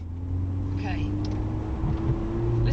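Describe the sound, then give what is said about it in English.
A sports car engine runs with a steady, low rumble that holds an even pitch throughout, with faint voices murmuring underneath. “to that engine.”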